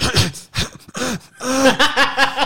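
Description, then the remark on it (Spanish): A voice imitates a string of small, stifled coughs, like someone at school trying to hold back a cough, several quick muffled bursts with strained, breathy vocal sounds between them. “o sea, ¿no te pasaba que a veces estabas en la escuela, güey, y de repente tenías ganas de toser y tú estabas así como...”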